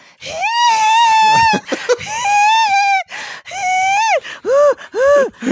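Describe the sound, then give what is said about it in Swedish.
Loud, high-pitched squeaks and whines come in a string of long tones and short arching chirps, broken up by quick breathy gasps and panting, heard over a phone call. No one is talking. “Och så det här lilla flåset och sen kom pipet igen och jag bara vad i hela helvete händer?”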